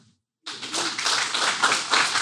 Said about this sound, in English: year, together as a collective, we read 10. Mm. We can clap for that.